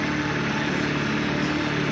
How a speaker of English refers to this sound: Lawnmower will wake you up.